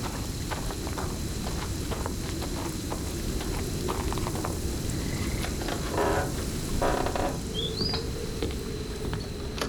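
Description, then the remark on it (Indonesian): A storm with strong wind roars steadily, dense rain pattering over a deep, rushing wind rumble, continuous for the whole stretch, with no voices. “Oh, menurut saya ini gede sekali, Pak. Saya belum pernah badai”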